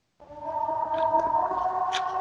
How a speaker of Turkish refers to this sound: Kapanış sirenimiz de geldi galiba.